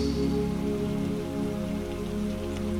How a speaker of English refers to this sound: And as the raindrops fall upon you, it takes all of your stress and carries it down to the earth beneath you, away from your body.